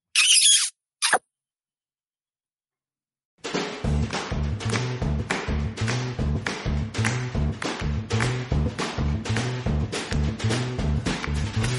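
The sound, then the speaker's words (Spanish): A song's intro kicks in after two short high-pitched squeals and a moment of silence, settling into a steady, punchy beat with a repeating bassline, loud, with no vocals yet. “Os dejamos con otra canción musical y nos escuchamos en el siguiente.”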